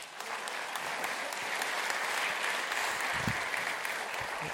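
A church audience clapping steadily, a dense, even wash of applause that holds at the same level throughout without any voices standing out.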